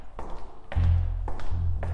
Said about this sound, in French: Le gardien sortit un trousseau de clés de sa ceinture et la fit tourner dans la lourde porte blindée qui s'ouvrit doucement.